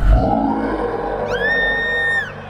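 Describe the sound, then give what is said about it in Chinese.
A fire-breathing dragon's roar: a rough, rumbling growl swells into a loud, high, sustained screech that holds steady for almost a second before trailing off. No one speaks. “不过，很不幸的，这一天竟然出现一只喷火龙。”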